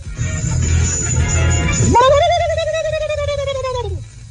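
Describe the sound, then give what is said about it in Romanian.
After a couple of seconds of muffled background rumble, a man imitates a turkey gobble with one loud, sustained, warbling vocal call lasting about two seconds, with a child in the background. “Iată un ascultător de Morning Glory făcând ca curcanul efectiv.”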